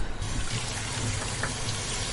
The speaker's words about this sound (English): What I would normally do is to um, to stop basically that happening. I would just take a couple of eggs and run them under some warm tap water, which I'll do now.